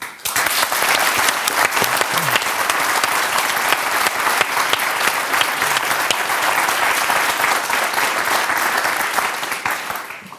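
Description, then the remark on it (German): An audience claps steadily for about ten seconds to welcome a performer, a dense, even wash of many hands at a strong, constant level that fades off at the very end. “Ich bitte um einen großen Applaus hier im Publikum”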